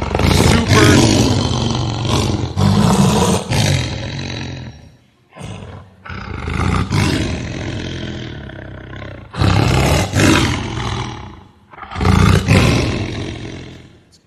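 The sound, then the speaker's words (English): Lions roar loudly and repeatedly, several long, deep, rumbling roars following one another with only brief pauses between them, no talking. “Imagine Daniel has now been thrown into this wildcat den with ferocious, hungry lions that are roaring, just roaring loud.”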